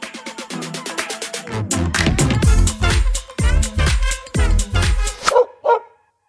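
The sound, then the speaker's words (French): Dogs bark loudly and close by, starting with a rapid run of high yips that give way to deeper, rhythmic barks, then fading out with a short whine. “Doit-on s'interdire de les regarder, ces chiens si mignons”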